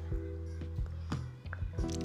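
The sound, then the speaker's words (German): Someone drinking water in a series of wet gulps, each swallow a soft squishy thump that repeats every fraction of a second, with a low hum underneath. “Okay, jetzt trinke ich Wasser, wie immer.”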